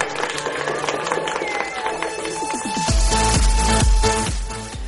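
Audience applause and cheering for the contributors of the Z Radio programme Es lo que hay fill the opening seconds over a tonal backdrop, then a loud music jingle with a heavy, thumping bass beat takes over for the rest.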